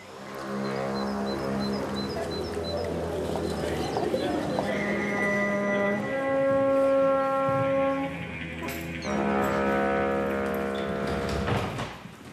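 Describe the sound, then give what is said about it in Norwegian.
A short musical jingle, the underlay vignette of NRK P2's museum programmes, of long, sustained tones, layered chords shifting through a few held notes at a steady, moderate loudness, with no one talking. “Dette er toner som kanskje noen av museums lyttere kjenner igjen som underlagsvignetten til podkastprogrammene.”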